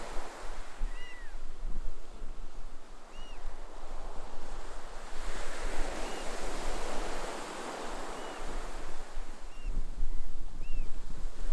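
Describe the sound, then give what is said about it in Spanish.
Ocean waves break on the shore in a steady, rushing wash that swells and recedes, with a low rumble underneath and faint bird chirps scattered above; no one speaks. “Su eco susurra la historia del cosmos en cada ola que rompe, desde el Big Bang hasta el primer suspiro de vida.”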